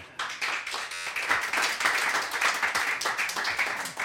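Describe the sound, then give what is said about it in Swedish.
A crowd breaks into applause for an audience member who answered a Melodifestival quiz question, a dense wash of many hands clapping steadily and fairly loudly for about four seconds, with no one speaking over it. “En applåd!”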